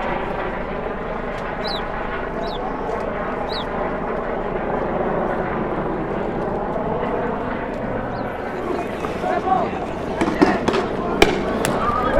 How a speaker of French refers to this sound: Canon à eau.